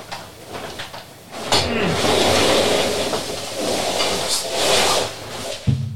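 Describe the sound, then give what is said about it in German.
A long, steady pneumatic hiss as a stool's seat is lowered, with clunks and rustling as it is swapped for an old chair during a live TV broadcast, ending in a sharp knock. “Ich fahre mal runter und äh, gleichzeitig hole ich mal meinen alten Stuhl wieder.”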